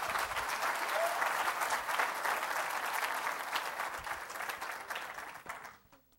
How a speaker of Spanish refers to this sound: Dele un fuerte aplauso a Cristo, hermano.